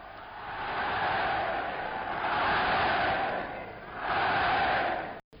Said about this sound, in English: When Hitler goes to vote for himself, the cheers speak louder than words.